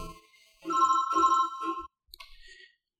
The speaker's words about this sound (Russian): Вот тут вот один звонок вклинился в запись подкаста.